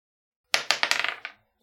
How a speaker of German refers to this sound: der Kälte zu trotzen hätte ich gerne noch einen Würfel, Würfelwurf.